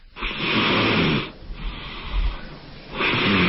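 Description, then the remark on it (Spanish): A four-year-old girl snores heavily in sleep: three long, rasping breaths with a brief noisy gasp between them, loud and harsh, with no talking. “su hija de cuatro años, pues le asusta mucho porque además se siente que no está descansando bien, a veces jala aire desesperadamente, tose y se vuelve a quedar dormida.”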